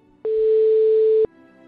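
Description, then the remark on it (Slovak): A single steady telephone ringback tone sounds for about a second, loud and clear against quiet background noise, with no one speaking, as the Európa 2 radio station calls the winner of a contest. “A na mne ostáva nič iné, iba volať samotnému finalistovi víťazovi.”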